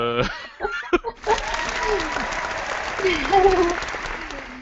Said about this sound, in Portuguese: ah, nossa auditora aplaudiu!